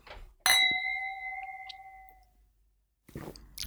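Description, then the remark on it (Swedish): Two glasses clink together once in a toast, bright, leaving a clear ringing tone that slowly fades over about two seconds before some soft shuffling noise. “Ja, nu, bra, nu smakar vi. Skål. Skål.”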